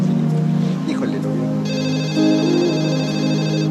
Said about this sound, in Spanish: Eh, este teléfono está sonando, bueno, ahorita no lo sabemos, pero bueno, quienes ya vimos la telenovela cuatro veces ya sabemos que están presentándonos el, departamento de un, escritor.